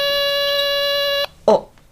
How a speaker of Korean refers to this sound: 인터폰이 왔네.